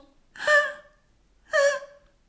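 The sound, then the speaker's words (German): Two breathy, moaning gasps from a voice imitating sex noises once heard at night through an open window in a courtyard, each about a second long with a pause between, fairly loud with no other talking. “Und dann war irgendwo im Innenhof auch ein Fensterlein offen und da kamen dann auch so Liebesgeräusche und die war aber wirklich so, also so.”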